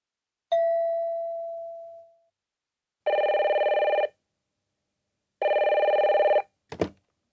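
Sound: telephone ringing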